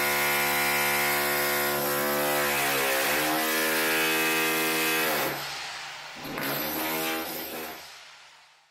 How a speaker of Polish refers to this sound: Dostanę zaraz potężnej kurwicy, bo sąsiad chuj znowu robi remont.